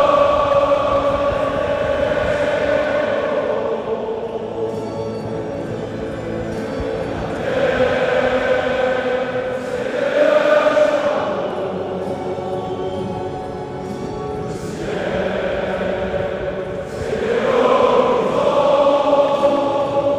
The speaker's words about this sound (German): Das war die Hymne von Erzelos.